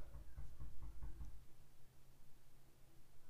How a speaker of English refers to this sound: there was knocking. I don't know if you guys could hear that. There was like, don't know if someone was knocking on the floor or. Are you knocking on the floor or the door?